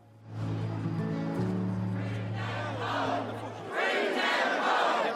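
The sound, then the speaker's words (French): A crowd chants in unison at a rally against antisemitism in London, voices rising and falling in a steady rhythm, with a low sustained hum beneath for the first few seconds before the chanting grows louder and fuller. “Son père, lui, s'est exprimé hier soir lors d'un rassemblement contre l'antisémitisme depuis la capitale britannique”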